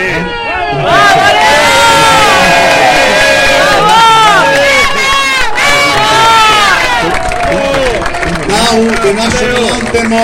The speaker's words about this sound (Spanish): Bien, lo despedimos como lo recibimos con un aplauso. ¿eh? Vamos.